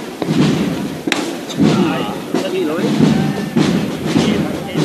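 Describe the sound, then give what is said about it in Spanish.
Several sharp metallic knocks from a hammer knocker striking a canopied procession float (paso de palio) ring out at irregular intervals, loud, over a steady crowd murmur with voices, as the float nears San Gregorio street. “Y el martillo que suena.”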